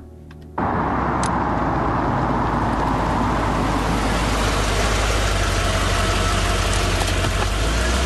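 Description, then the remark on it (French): A car engine starts up and settles into a steady idle, a continuous low rumble with a faint whine that runs unchanged to the end, as the car parks in the Bagnouls car park. “Bon, tu te gares là et tu m'attends, hein”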